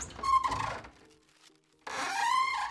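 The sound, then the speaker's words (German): Two long, scraping swishes of Leonardo's long robe dragging across the floor as he bustles through his workshop, a rough rubbing sound with a brief quiet pause between the strokes and no voices. “Dabei schleift sein langes Gewand über den Boden.”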